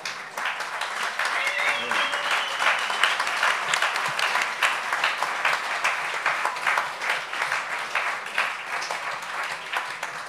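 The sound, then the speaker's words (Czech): Sustained applause from an audience at the end of a question-and-answer session, dense and steady throughout, with many overlapping claps forming a continuous wash of sound and occasional faint voices underneath. “No jestli ne, tak vás poprosím o aplaus”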